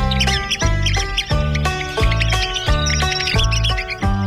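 A red-cockaded woodpecker gives an agitated call: loud, nasal, buzzy squeaks repeated rapidly in a steady series of notes with bright chirps above, continuous, with no voices.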